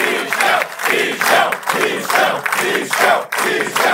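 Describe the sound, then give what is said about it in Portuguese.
A large, excited crowd cheers loudly, the roar swelling and dipping in a steady rhythmic pulse like chanting, with no single voice standing out. “Vê como o pessoal tava empolgadaço.”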